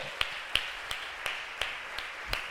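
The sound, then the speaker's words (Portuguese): Hand clapping in a steady, even rhythm, about seven sharp claps spaced evenly apart, fairly quiet over a constant background hiss, with no voices. “Uma salva de palmas aí!”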